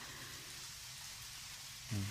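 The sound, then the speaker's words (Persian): Steady rain falls in a continuous hiss, a soft, even wash of drops, with a brief low thump near the end. “خوبه بارون خیلی خوبه.”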